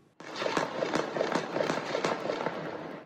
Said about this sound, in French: Il est près de 23h30 dans le quartier populaire Pisevin à l'ouest de la ville ce lundi soir, quand soudain, des tirs nourris.